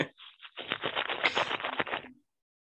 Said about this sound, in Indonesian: Gesekan sih pasti. Iya, benar. Suara plastik.